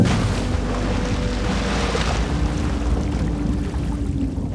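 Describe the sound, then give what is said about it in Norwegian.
A dense, muffled rumble fills the space, steady low churning with a faint hum running through it, heard underwater after diving beneath the sea surface and the waves with a diving mask and snorkel. “Det å dykke ned hit under bølgene, det er som å komme inn i et nytt univers.”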